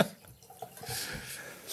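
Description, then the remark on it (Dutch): A drink is poured into a glass, a soft, steady trickling splash that swells toward the end, with a few faint drips at the start. “Misschien moet je inschenken bij jouw microfoon.”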